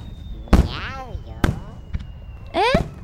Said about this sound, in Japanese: 次は三色玉と思いきやよスターマイン最高